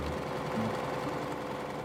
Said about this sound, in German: Der wird festgenäht am schönen Seidenstoff und dem Baumwollunterstoff und dann werden die gezeichneten Muster mit der Nähmaschine abgesteppt.